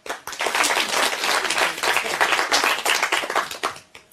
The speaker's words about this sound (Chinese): 给我老爸一点掌声。